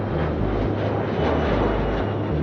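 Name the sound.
airplane flying overhead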